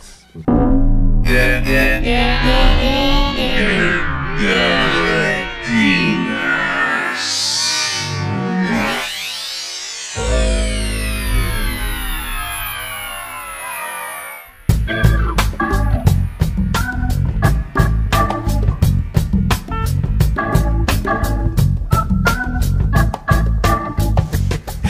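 Music from the soundtrack of the film Past Lives (Vidas Pasadas), played on a broadcast show, without talking: layered melodic tones give way to a rising and falling sweep, then a steady, fast electronic beat drives the last stretch at a fairly loud, even level.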